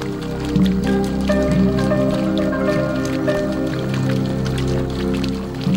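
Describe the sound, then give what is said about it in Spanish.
Water spills and splashes steadily over the edges of a fountain basin, a continuous trickle with scattered drips, holding an even level throughout with no one speaking. “¿No ves cómo el agua rebosa por los bordes? cómo las tuberías la ocultan por un momento.”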